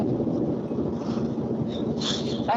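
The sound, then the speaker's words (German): Steady low rumble of a car driving on a road in Germany, heard from inside the cabin, a constant droning road noise with a faint hiss on top and no clear voices. “Ihr seid auch gerade unterwegs, oder? Das klingt so.”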